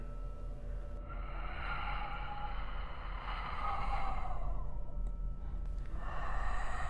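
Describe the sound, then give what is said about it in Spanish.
Slow, eerie breathing starting near a door, on its outside: long, airy inhales and exhales drawn out over several seconds, with a fresh breath beginning near the end. A low hum sits underneath, and nobody speaks. “Y de repente empecé a escuchar una respiración.”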